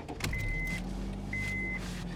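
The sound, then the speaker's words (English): A car engine turns over and settles into a steady low rumble, while two drawn-out electronic warning chimes beep from the dashboard, one after the other. No one speaks. “Uh, right here going to start the car up.”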